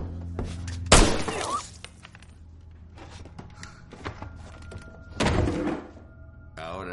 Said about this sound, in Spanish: Dispara a Cornell en toda la frente y cae al suelo.